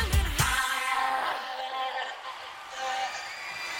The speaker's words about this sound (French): pousse ces fameux cris suraigus qui vont devenir sa marque de fabrique